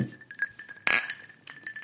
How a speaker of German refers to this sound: Und ähm, seid nicht irritiert, wenn es im Hintergrund ab und zu etwas klimpert.